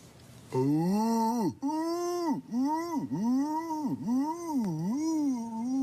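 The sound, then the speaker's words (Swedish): A person imitates a wood pigeon's call, voicing a loud run of about five rhythmic, swooping coos with no other sounds around them. “Ringduvan. En ringduva.”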